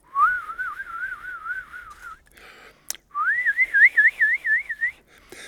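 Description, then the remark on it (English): A person whistles two sustained notes with a steady, wavering vibrato, modulating the pitch by changing the vibrato depth and rate, the second phrase higher and with wider, more pronounced wobbles, separated by a brief pause with a soft click. “so that is a very special case of frequency modulation because I'm modulating the frequency of my whistle pitch by changing the vibrato depth and rate.”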